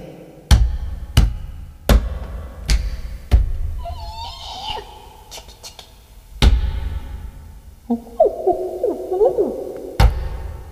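Wavering owl hoots rise and fall in two bursts, punctuated by a series of sharp, heavy thumps at irregular intervals; no one speaks.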